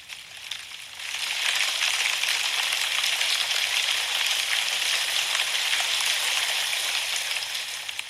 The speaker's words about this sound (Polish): Leki deszcz.